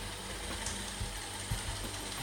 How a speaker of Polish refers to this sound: Na razie odkurzacz zmierza do bazy. Taka historia.